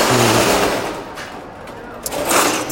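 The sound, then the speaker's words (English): A metal shop shutter rattles loudly as it is rolled down by someone closing up their shop in the centre of Madrid, Spain, a rapid clattering roar that eases midway and swells again, with street ambience around it. “someone just closing up their shop with a shutter.”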